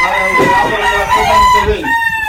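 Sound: fighting rooster crowing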